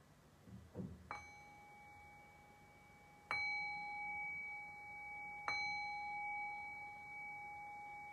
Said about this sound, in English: And so, in the next breath or two, we'll begin to shift away from the meditation and back into a conversational space. And I'll cue that by ringing the bell three times.